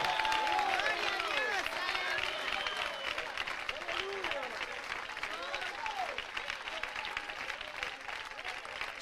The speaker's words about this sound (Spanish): ¿Cuántos le aplauden al Dios de gloria en esta noche? ¿Cuántos le aplauden al Dios de gloria en esta noche?